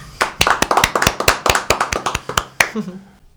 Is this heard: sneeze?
no